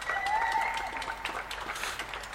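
Dense, continuous clapping from many neighbours in the street at 9 p.m., as they regularly do, with a faint whistle or cheer rising above the steady patter.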